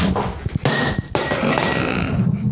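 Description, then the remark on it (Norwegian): A glass full of water hits the floor with a sharp crash, then a second clattering knock, followed by a faint high ringing and rattle as it settles. No one speaks. “Jeg mistet et glass på gulvet.”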